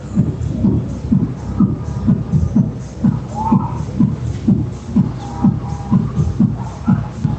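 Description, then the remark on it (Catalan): Loud music thumps up through the floor from a neighbour below: a steady, driving bass beat about three pulses a second, muffled and boomy, with only faint traces of melody above it. “Exacte, és el veí de sota que està fent una festa o no sé què està fent, però bé, està amb la música al màxim, al màxim nivell.”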